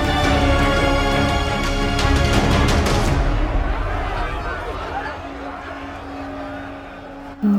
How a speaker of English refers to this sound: The din from the crowd faded as Mother Teresa found her mind brought back to her childhood when friends and family knew her as Agnes.